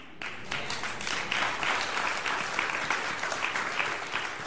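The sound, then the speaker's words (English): An audience breaks into sustained applause, many hands clapping in a dense, steady wash that holds at an even, fairly loud level for several seconds. “You can clap now, but you're not going to clap with my next statement.”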